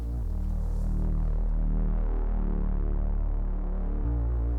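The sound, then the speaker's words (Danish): A short instrumental jingle of sustained, droning low synth tones with a steady throbbing pulse, holding a constant loud level before the chord shifts near the end. No one speaks. “Vi skal lige have en uh, lille jingle.”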